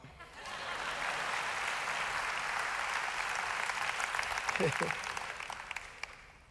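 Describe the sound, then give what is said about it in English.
A church audience bursts into sustained applause during a sermon, a dense wash of clapping that holds steady for several seconds before tapering off, with a brief voice rising through it near the end. “It's a good time to clap.”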